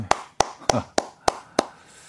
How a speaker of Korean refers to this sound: 박수 한번 주시죠. 예, 또 이렇게.